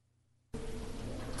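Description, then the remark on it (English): After a half-second of near silence, a loud, steady low rumble of a running motor kicks in abruptly and continues unbroken, thick with noisy, hissing texture. “This is that, that sound of the, the motor running that we caught.”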